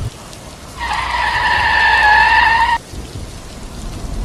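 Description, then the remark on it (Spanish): A car brakes hard at night, its tires letting out a loud, sustained screech for about two seconds before cutting off abruptly, with a steady rain-like hiss in the background. “Un frenazo en seco y”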